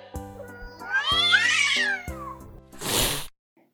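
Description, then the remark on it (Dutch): A cat in a cat video lets out a long, wavering meow, its pitch rising and falling over about two seconds, followed by a short, harsh, breathy burst like a hiss. No one speaks. “Ik kan urenlang naar kattenfilmpjes kijken, want ik ben dol op katten.”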